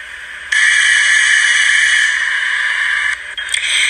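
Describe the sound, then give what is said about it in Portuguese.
A loud, steady electrical hiss from all the devices during a sudden blackout switches on abruptly and holds for about two and a half seconds, then sputters and crackles briefly before continuing, with no voices present. “E, quando foi olhar o que o mordomo fazia, surgiu de repente um apagão e todos os aparelhos tiveram esse chiado.”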